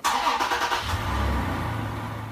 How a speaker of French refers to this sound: Et on entend le moteur qui démarre.